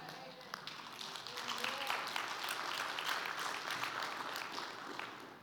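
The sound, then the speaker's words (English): A church audience applauds steadily for several seconds during a Sunday morning sermon, a dense wash of many hands clapping together, sustained and fairly loud throughout, with a faint murmur of voices beneath. “Yeah, clap.”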